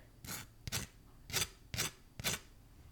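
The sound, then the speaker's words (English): A knife spreads cream cheese across toasted homemade cinnamon raisin sourdough sandwich bread in five rasping, scratchy strokes at a steady rhythm, fairly quiet, with no voices. “Uh, I am spreading on some some cream cheese on it as a little as a little snack. Maybe you can hear it.”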